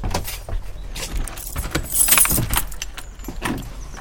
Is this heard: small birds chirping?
no